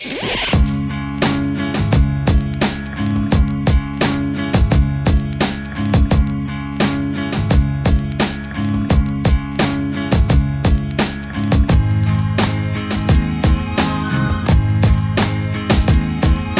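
A hip hop track plays loud, with punchy, evenly spaced drum hits over a steady sustained bass and melodic backing, no vocals yet.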